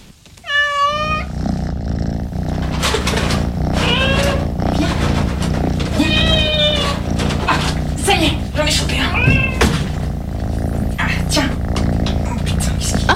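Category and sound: animal, cat meowing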